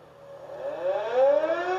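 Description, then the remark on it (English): An air raid siren in Kiev, Ukraine, wails steadily upward in pitch, a loud sustained tone with layered harmonics rising over a couple of seconds, with no voices present. “And now, air raid sirens are sounding there.”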